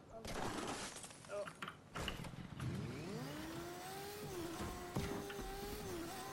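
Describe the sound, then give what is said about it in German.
A motorcycle engine in a video game revs up and holds a steady, rising drone as it pulls away, loud, with some clattering noises at the start and voices faintly underneath. “Komm, Motorrad.”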